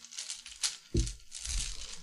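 Coins being rummaged through nearby: a steady jumble of metallic clinks and jingles with a few sharper knocks and low shuffling thuds, with no voices.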